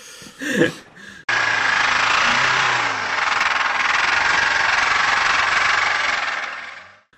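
A brief vocal sound, then a loud, harsh engine roar with rough mechanical rattling that holds steady for several seconds before quickly dying away, meant as an engine suffering a piston seizure.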